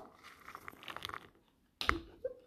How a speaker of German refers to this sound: Popcorn, das hat man gehört.